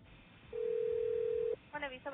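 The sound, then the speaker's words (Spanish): A single steady ringback tone hums over a phone line for about a second, then cuts off as a voice picks up and starts talking through the receiver, on a call placed from a Boston University student radio station to request an interview. “y llamé para que ustedes vean lo, lo dificilito que es conseguir entrevistas.”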